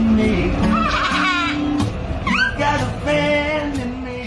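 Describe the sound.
A single voice sings a melody up close, holding sustained, wavering notes and sliding between pitches, fairly loud over a low, steady background rumble.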